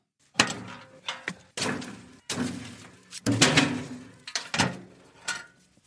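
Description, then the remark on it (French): A braai door clanks open, then several heavy logs are tossed onto a wood fire, landing in a quick irregular series of loud wooden thuds and clatters, with no talking. “on comprend que pour le chef sud-africain, c'est véritablement une véritable philosophie de vie qui démarre tout simplement par un feu de bois on ouvre la porte du braille, on jette quelques bûches dans le feu et ça démarre.”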